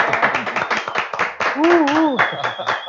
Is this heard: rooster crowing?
no